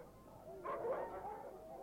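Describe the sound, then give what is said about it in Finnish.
A dog barks, a short cluster of faint, muffled barks rising briefly above a steady background hiss, with no one speaking. “Koiran haukuntaa.”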